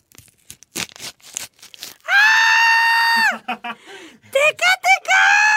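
A plastic package holding a single Shugyoku plum from Wakayama crinkles with a few sharp clicks, then is torn open in two long, loud, high squealing stretches separated by more rustling and crackling.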